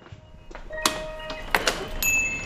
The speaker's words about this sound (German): Die kalte Luft schneidet ihr förmlich in die Wangen, als sie dumpf das Klingeln des kleinen Glöckchens hinter der bereits geschlossenen Ladentüre vernimmt.